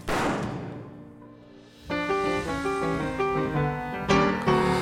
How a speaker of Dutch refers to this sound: Er klinkt een schot.